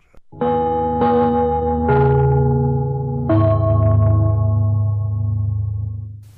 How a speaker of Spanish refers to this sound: Atención a la red deportiva de emisoras amigas de Radio Portales. Al toque de gong, sírvanse conectar.